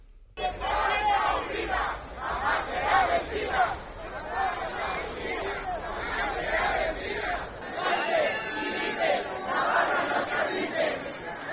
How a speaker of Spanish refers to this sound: Son algunos de los gritos que se han escuchado ante la sede del PSN, en el Paseo de Sarasate.